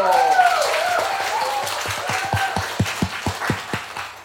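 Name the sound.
studio audience applause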